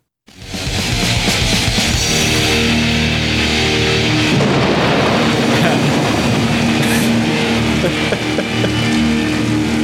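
A loud, continuous roll of thunder rumbles for about ten seconds, swelling midway, with sustained musical tones humming underneath as one song fades into the next.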